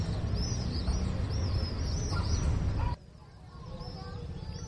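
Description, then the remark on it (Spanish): Repeated high bird chirps ring out outside a window at dusk over a steady outdoor rumble of passing cars, then the background drops suddenly and a few fainter chirps continue. “Pájaros, coches que pasan, niños, voces”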